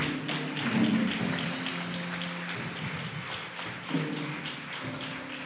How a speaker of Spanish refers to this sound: Aleluya, vamos, denle ese aplauso a Jesús.